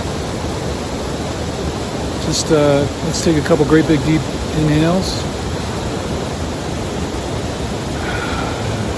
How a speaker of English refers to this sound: So thought we would um, maybe just spend a minute here, and I'm just going to let you breathe and listen to the waterfall.